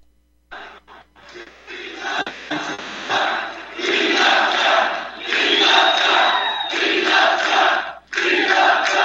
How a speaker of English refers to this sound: okay here he comes here is donald trump again today in manchester to a, a, a crowd gone wild.